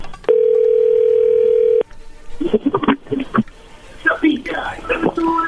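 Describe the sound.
A steady telephone ringing tone from an outgoing call sounds clearly for about a second and a half at the start, followed by people speaking and whispering quietly.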